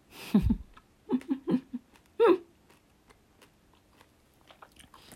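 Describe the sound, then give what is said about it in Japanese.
Crisp crunches from someone biting into the crunchy outer coating of a purple German soft candy from a 125-gram Mermaid Mix bag, a quick cluster of sharp bites followed by a few louder chomps, then quiet chewing fading out. “多分この、周りがカリカリで、いい音がするから、よく、あの、一般の人は、ASMR の方とか食べてるんだと思います。”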